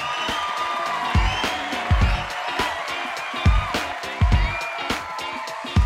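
audience applause

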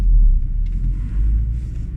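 car interior engine rumble

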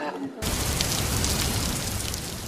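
heavy rain falling

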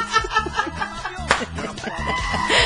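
man yelling loudly

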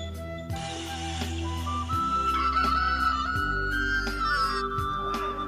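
rooster crowing

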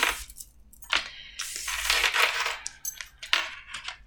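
shuffling tarot cards

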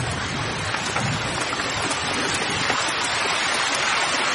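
rain falling

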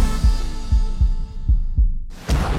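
heartbeat sound effect

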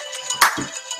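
alarm going off

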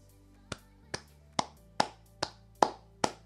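one person clapping hands

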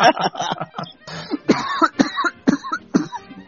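coughing

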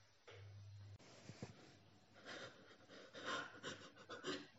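heavy panting

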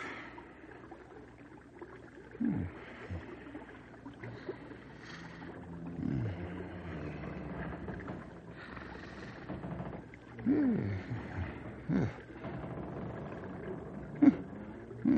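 snoring

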